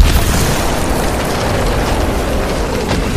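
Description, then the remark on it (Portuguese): A loud explosion as an ice wall bursts apart, followed by a dense, continuous roar of crashing and crumbling debris that stays intense for several seconds, with no voices. “Então, uma das paredes de gelo explodiu”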